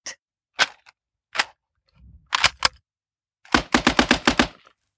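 Sharp, loud gunshots ring out, first a few single shots spaced apart, then a rapid burst of about six in quick succession, with no voices.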